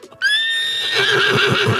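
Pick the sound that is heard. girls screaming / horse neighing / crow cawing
horse neighing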